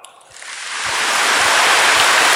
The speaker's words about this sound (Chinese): 鼓掌！